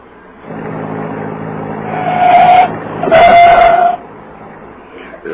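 A private car with Coahuila license plates hums steadily as it draws near, then brakes squeal sharply twice as it slows and stops after police wave it down on the highway.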